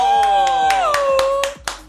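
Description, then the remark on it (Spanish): Steady, evenly spaced hand claps, about eight sharp slaps in under two seconds, ring out over a sustained, held tone that bends slightly in pitch partway through. “Aplauso.”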